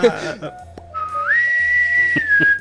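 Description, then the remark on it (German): A whistle sounds one long, shrill, steady blast that steps up in pitch and holds to the end, following a brief burst of voices at the start. “Ich will auch so eine Pfeife haben.”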